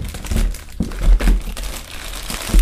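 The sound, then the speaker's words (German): A Kinder Bueno snack wrapper crinkles and rustles, with irregular crackling bursts as the plastic is handled and pulled open, and no voices. “Kinder Bueno”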